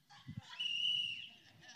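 A single steady, high-pitched whistle blast lasting about half a second, fairly clear over a low murmur of room noise and a couple of soft thumps beforehand.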